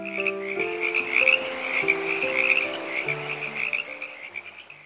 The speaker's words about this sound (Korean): 막내 청개구리는 비만 오면 엄마 무덤이 냇물에 떠내려갈까봐 냇가를 이리저리 뛰어다니며 울고 또 울었답니다. 엄마! 엄마! 개굴, 개굴, 개굴! 엄마!